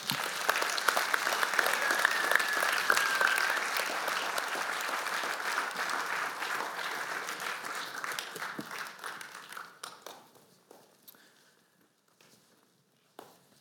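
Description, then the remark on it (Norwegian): An audience breaks into sustained applause for a discussion panel, many hands clapping in a dense patter that holds steady for about ten seconds, then thins out and fades to a few scattered claps. “Jeg syns vi skal gi dette panelet en stor applaus.”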